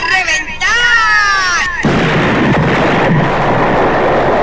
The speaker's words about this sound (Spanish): ¡Explosión de estreno!